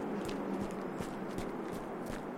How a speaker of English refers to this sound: when I jog, much as I should be listening to everybody else's podcasts, I don't. I just listen to my, my little slow footsteps.